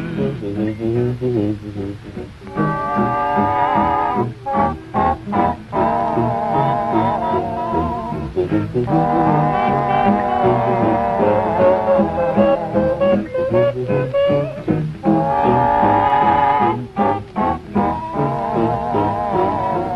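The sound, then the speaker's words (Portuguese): Voices sing in layered harmony while imitating the sound of musical instruments with the voice, in a 1932 film recording, with sharp percussive beats keeping a steady rhythm. The full, loud sound runs throughout, pausing briefly now and then. “Eles foram pioneiros nessa questão de usar as vozes como instrumentos, inclusive imitando mesmo o som de alguns instrumentos com a voz.”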